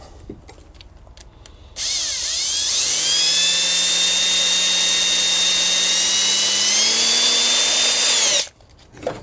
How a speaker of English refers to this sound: So uh, tighten the chuck up enough to put the little drill bit in there. Okay, time for hole number one.